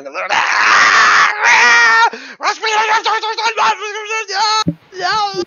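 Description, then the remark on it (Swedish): A woman wearing a leopard-skin fur coat screams and shrieks in panic, shouting words in a strange, unintelligible language. The sound is loud, in rapid continuous bursts broken only by brief gasping pauses. “Ni hör hon skriker på något så här konstigt språk.”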